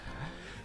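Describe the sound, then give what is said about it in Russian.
A brief vocal imitation of a live carp's tail thrashing against shopping bags left on the floor: a loud, continuous rough rustling burst with a slight rising buzz, lasting under a second. “и карп там хвостом хуярил по пакетам, ну и, соответственно, вот такой вот звук издавал.”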